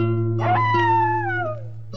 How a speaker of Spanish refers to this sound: Y toda la noche, toda la santa noche, el perro aulló.